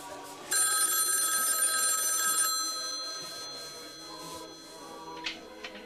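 A telephone bell rings in one loud, sustained burst lasting about two seconds, then stops, leaving quiet with faint background noise and a few soft clicks; a man in a film is phoning some women.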